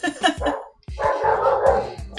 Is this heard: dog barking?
yes